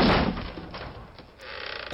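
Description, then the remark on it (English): A heavy door crashes down with a loud, low thud at the start, followed by rumbling clatter and a second softer knock near the end, no voices present. “The door. this time it falls.”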